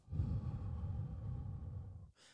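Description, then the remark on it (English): A slow, long belly-breath exhale, soft, with a steady breathy rush lasting about two seconds before a brief hiss of air drawn back in. No talking. “In, hold for a second, exhale, slow.”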